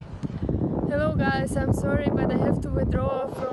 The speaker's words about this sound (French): On écoute ses explications postées sur Twitter. Attention, il y avait du vent.